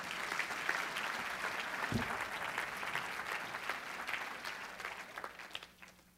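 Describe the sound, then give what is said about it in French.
An audience applauding, a dense steady patter of many hands clapping together for about six seconds, holding fairly even before tapering off at the end. “Est-ce qu'on peut leur donner une main d'acclamation, s'il vous plaît?”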